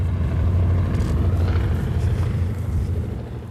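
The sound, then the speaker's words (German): A vintage Junkers Ju 52 airplane, nicknamed 'Tante Ju', takes off, its piston engines producing a loud, steady low-pitched roar and rumble that holds for several seconds, with no voices present. “Tante Ju ist abgehoben.”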